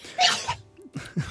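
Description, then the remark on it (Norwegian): A single sharp sneeze bursts out, loud and breathy, followed by a couple of soft vocal sounds and short exhalations as it settles. “Prosit.”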